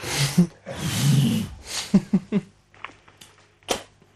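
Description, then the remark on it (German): Someone snorts hard and hawks up mucus in a long, rough, throaty pull, then spits it out with a few sharp, wet bursts. “Verdammt, ich habe gerade von mir, muss man ganz kurz hochziehen und ausspucken. Das hört sich ein bisschen unangenehm an.”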